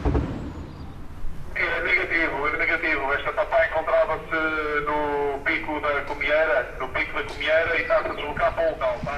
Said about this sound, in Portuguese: Os rádios dos elementos da GNR apitam aqui e ali, é passada uma mensagem, de vez em quando o jornalista consegue ouvir, grande parte das vezes não. Sempre uma voz abafada a soltar informações.